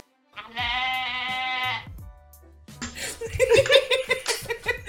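A single loud, quavering goat bleat lasts about a second and a half, followed by a short pause and then a burst of people laughing.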